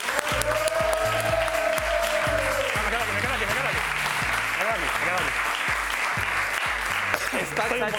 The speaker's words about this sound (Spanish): Un aplauso para él.